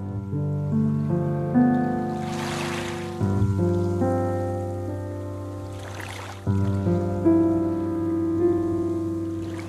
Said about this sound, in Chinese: 这是第二个版本，一直有海浪的声音，还有像海浪一般美好的钢琴的声音，以及这个女生。